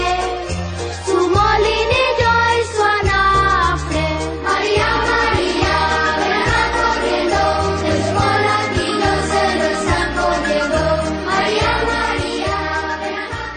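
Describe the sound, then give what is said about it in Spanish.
A traditional Spanish Christmas carol (villancico), a traditional religious song of the Christmas season in Spain, plays loud and continuous, a sung melody carried over a bouncy, steady bass accompaniment with a lively, festive rhythm throughout. “Lo que estás escuchando es uno de los villancicos españoles tradicionales.”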